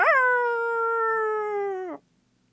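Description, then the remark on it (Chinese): A single hyena howl, one long, steady, mid-pitched wail that sags slightly in pitch over about two seconds, then cuts off abruptly into silence. No talking. “刀疤被矫健的辛巴蹬下了悬崖，等待他的正是土狼们锋利的尖牙。”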